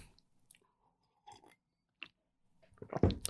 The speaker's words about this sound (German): So, dann ein Schluck Kaffee, gefolgt von einem Schluck Wasser,